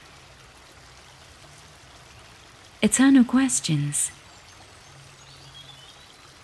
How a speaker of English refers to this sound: Fountains flushing on either side, highly likely.